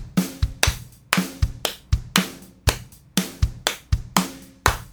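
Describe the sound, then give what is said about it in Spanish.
A steady drum kit groove loops at a moderate tempo on the song's pulse, punchy kick thumps alternating with crisp snare hits, clear with no voices. “Aquí tenemos un sonido de batería y si vamos con el pulso de la canción eh, sería así.”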